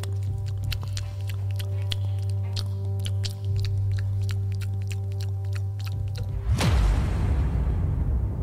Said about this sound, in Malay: Dan saya pun lah Dekatkan telinga saya dekat almari tu Saya terdengar bunyi sesuatu macam sedang mengunyah makanan